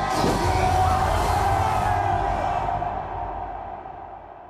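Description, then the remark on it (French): A large crowd of Black Lives Matter protesters in the United Kingdom roars with shouts and cheers as a statue, roped at the head and feet, is pulled down and falls. A dense, loud wall of voices swells at first and then gradually fades as the high end thins out. “Il tire et la statue s'effondre sous les cris de la foule.”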